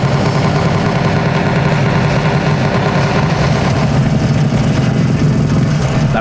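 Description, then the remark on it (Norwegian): A loud arcade light-gun shooting game played at an arcade by someone holding two large guns, its dense, rumbling soundtrack and effects in a steady, continuous roar with no one talking. “Her er vi da ved noen som spiller Terminator Salvation-spillet her på Arkaden med to svære geværer i henda.”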